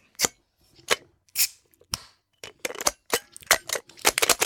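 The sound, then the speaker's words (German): A bottle opener, magnetic on its underside so the cap stays on it, clinks and scrapes against a bottle cap in a string of sharp metallic clicks and taps, irregular and bright, ending in a busier flurry of rattling as the cap comes loose. “ich habe sogar unseren Flaschenöffner dabei”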